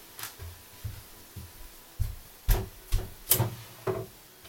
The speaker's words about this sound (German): Ich hab sie. Die legendäre Schublade wurde mal wieder geöffnet.